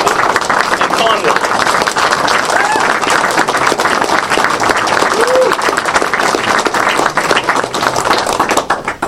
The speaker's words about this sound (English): So, a round of applause for the both of them.